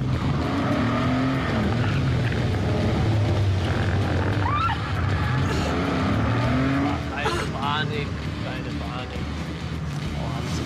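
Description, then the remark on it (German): A car engine revs hard and climbs in pitch as the driver steps on the gas, surging more than once over a steady, loud drone of engine and road noise. “Sobald man da ein bisschen mehr rauskitzelt, eine Katze aus dem Sack lässt, so, dann treten wir ein bisschen drauf.”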